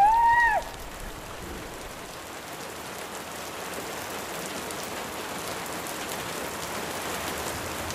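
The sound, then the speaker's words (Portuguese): Steady rain falls outdoors on a Wednesday at three in the afternoon, heard from a therapy room at Casa de Saúde da Idanha: a continuous even hiss of drops at moderate level, with a brief high chirp-like sound at the very start before the rain carries on alone. “É quarta-feira, são três da tarde e chove lá fora.”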